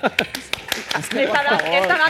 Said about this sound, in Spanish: por aquí empieza siempre el aplauso, sigue para allá.